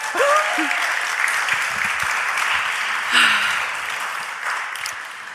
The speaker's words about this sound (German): Habt ihr schon geklatscht?